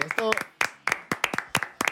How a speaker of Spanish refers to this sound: Pues sí. Un aplauso para estos vecinos.